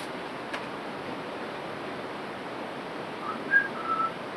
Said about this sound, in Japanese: あ、口笛ぐらいがいいかな。どうだろう。